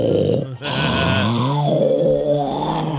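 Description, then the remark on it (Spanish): A voice imitates a lion, letting out deep, rough grunting growls with a brief pause near the start, then a long, rumbling, strained groan that sustains loudly to the end. “Y ahí estaba el león.”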